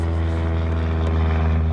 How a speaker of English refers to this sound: There's a literal plane. like we can see it like right there. Yeah, I don't know how that's affecting the audio.